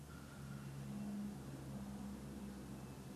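A helicopter drones, a steady, loud, low mechanical hum with a slightly wavering pitch that fills the whole moment without pause.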